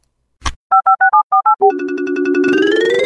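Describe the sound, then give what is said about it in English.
A click, then a quick run of about eight touch-tone keypad beeps on a flip phone, followed by a steady, buzzy phone tone that swells slightly in pitch, as messages are checked. Loud, with no talking. “With that, I would love to check messages from the flip phone.”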